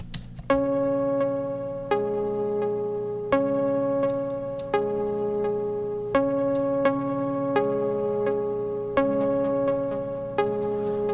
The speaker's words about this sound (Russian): Следующая дорожка была прописана именно колокольня. А, использовал, получается, Nexus. И звучит оно примерно вот так вот.